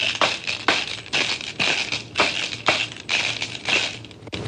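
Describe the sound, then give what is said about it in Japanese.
A zeni-daiko rattle, a pair of sticks each holding six five-yen coins, twelve in all, with red-and-white tassels, is shaken and struck in a steady rhythm of bright, jangling metallic bursts, about eight strokes, fairly loud, with no talking. “振ったり叩いたりするたびにシャンシャンと奏でることから銭太鼓と言われたのではないでしょうか2本合わせて五円玉が12枚12ヶ月の幸せを願って房も紅白とめでたいそうです銭太鼓を鳴らしてみてもらえますかはい叩けばこういう”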